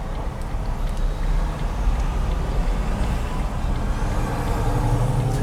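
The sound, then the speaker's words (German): Steady, loud low rumble inside a small Smart car, a car-sharing car, while driving, with continuous engine and road noise droning throughout and no voices. “Ja, wir sind an einem, einem Smart, ähm, Smart ähm, Car-to-Go-Wagen. Der nämlich total scheiße fährt.”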